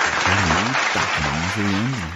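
A steady crackling wash of applause runs throughout, with three wavering, low-pitched voiced cheers rising over it.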